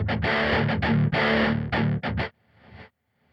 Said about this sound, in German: Endlich läutet es.